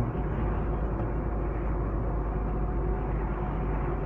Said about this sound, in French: J'espère que le vent vous gêne pas trop.